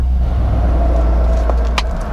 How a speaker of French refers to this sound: ah, ça secoue dès qu'il y a un camion qui passe.